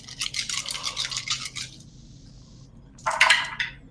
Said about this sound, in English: Okay, so two, four, six, eight, ten. All right, so I'm rolling ten dice.